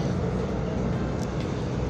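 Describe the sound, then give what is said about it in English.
A bus idles at a bus stop, its steady low engine rumble droning continuously and fairly loud, with no speech over it. “I ran for the bus now. The bus is sitting here.”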